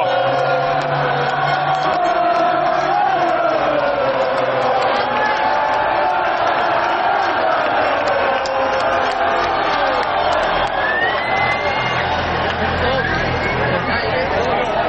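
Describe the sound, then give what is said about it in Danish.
A roadside crowd at a bike race roars and cheers without pause, a loud, dense wall of shouting voices and excited chatter that holds steady for the whole stretch. “Folk er stive, folk er glade, og det er altså fuldstændig øh, elektrisk stemning.”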